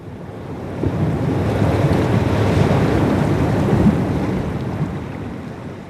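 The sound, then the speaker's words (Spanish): Ocean waves wash and break steadily on an open-ocean surf beach in Melbourne, a broad continuous roar of surf swelling and easing, with some wind rushing across the microphone and no voices. “Melbourne está dentro de una bahía y entonces tenemos la suerte de tener dos tipos de playas muy diferentes, las que están dentro de la bahía, el agua es calma y si salís al océano abierto, esas son las playas de olas, con un oleaje espectacular”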